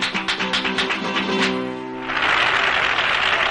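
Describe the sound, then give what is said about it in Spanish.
Customers applaud: rhythmic clapping over a sustained tonal, music-like sound gives way midway to loud, dense, continuous applause from a crowd. “La clientela aplaude a Araceli.”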